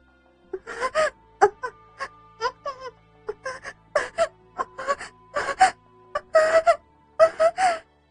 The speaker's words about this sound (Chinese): 听到继母发出的呻吟声，郑琪发疯了。